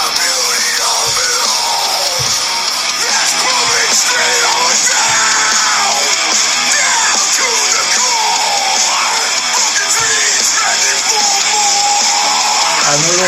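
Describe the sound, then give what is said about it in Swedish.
Rock music plays continuously through a small phone speaker, loud but thin and tinny with almost no bass, strained vocals riding over a dense, harsh wash of guitars. “Och nu lyssnar vi alltså ur en telefon. Det är därför jag ser det här risigt ljud.”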